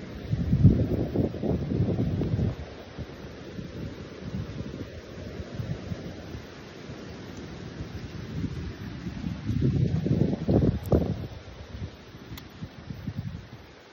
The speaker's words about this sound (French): Non, là c'est vraiment du vent. Tiens, laissons-les écouter.